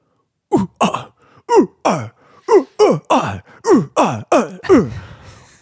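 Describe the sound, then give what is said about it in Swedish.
A single voice imitates the rhythmic grunting of kayakers paddling sport kayaks in a line past a dock near Reimersholme: about eleven short, forceful grunts with falling pitch, spaced in a steady paddling-like beat, fairly loud, with no other talk. “Kommer de liksom forsandes fram och bara uh, uh, ah! ett, ett grymtande oväsen.”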